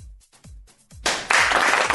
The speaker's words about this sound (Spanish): Mira, aplausos, aplauso corto.